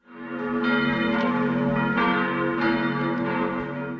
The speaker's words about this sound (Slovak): Čo vám napadne ako prvé, keď sa povie zvonček? Zvonenie telefónu? zvonenie pri dverách, zvonenie na kostolnej veži.